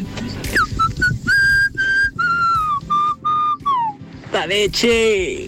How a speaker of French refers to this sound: Un beau petit sifflet comme ça qui fait plaisir